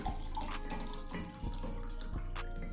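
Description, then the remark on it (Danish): Water pours steadily for a few seconds, a continuous splashing rush with small gurgles and bursts, no talking over it. “jeg bliver lidt vand op her.”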